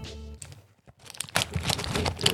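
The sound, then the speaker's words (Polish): Crinkly rustling of a pink cosmetic bag stuffed with medicine packets, fairly loud, starting with a soft shuffle then building into dense, continuous crackling as the contents are handled. “To jest kosmetyczka, posłuchajcie, w kolorze różowym, e, która ma w sobie miliony leków.”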